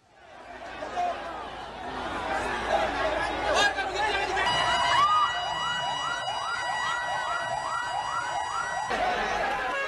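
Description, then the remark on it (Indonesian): A fire engine siren wails in rapid repeating rising sweeps through the second half, loud, over a noisy crowd of chattering, shouting residents, at a house fire in a densely populated neighborhood of Ujung Tanah, Makassar, South Sulawesi, where the engine struggles along a narrow, crowded road. “Mobil pemadam kebakaran kesulitan menjangkau titik api karena akses jalan sempit ditambah banyaknya kerumunan warga.”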